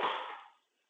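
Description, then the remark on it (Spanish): A cat makes a single short, breathy noise, loud at first and fading away within about half a second, with no talking around it. “Ese es mi gato.”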